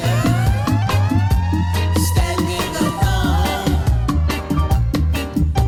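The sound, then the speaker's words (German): A wailing siren tone sweeps up and down repeatedly over a loud, pounding electronic beat with heavy bass, woven into the music rather than heard alone. “Dass du mit, einer, mit so einer Sirene hast können.”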